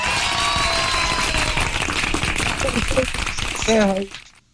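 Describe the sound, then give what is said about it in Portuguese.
A steady wash of applause fills about four seconds at an even level, with voices mixed in and a brief tonal cry near the end before it cuts off quickly. “Palmas, né?”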